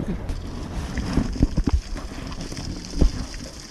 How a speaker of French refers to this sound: tout ce bruit qui ressemble à de la pluie sur un velux est en fait tous les invertébrés qui recouvrent le sol.